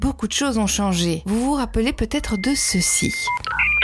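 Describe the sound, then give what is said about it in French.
A man speaks, then a 1990s dial-up internet modem starts connecting over a landline phone line: quick dialing tones and a steady electronic beep, loud, cut off after about a second and a half. “Oui, c'est le bruit d'Internet dans les années 90, quand il passait encore sur les lignes de téléphone fixe.”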